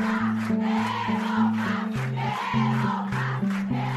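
A large crowd shouts in unison, a loud rhythmic chant of short repeated phrases with steady beats, demanding bread ("queremos pan", "we want bread"), voices blending into a continuous roar.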